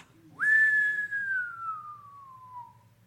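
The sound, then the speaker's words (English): A single long human whistle holds one clear tone for over two seconds, sliding slowly downward in pitch as it fades, loud with a faint low hum underneath. “The only way I could whistle that long is because I took a sip of water.”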